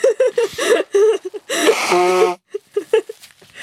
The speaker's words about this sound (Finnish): Ootas, oota, mä, mä niistä, nyt tulee kova ääni.